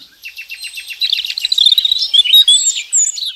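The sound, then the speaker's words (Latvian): Birdsong in a forest on an early morning in late May: a quick run of evenly repeated high chirps gives way to a lively, tumbling warble of bright whistled notes, fairly loud and continuous, with no voices. “Un kā tas skan pavasarī? agrā maija beigu rītā.”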